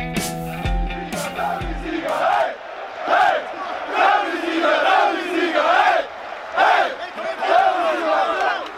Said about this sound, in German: So hörte sich die Erleichterung bei den Dynamo-Fans nach einem 2-0 in Halle und dem Ende einer Niederlagenserie seit Dezember an.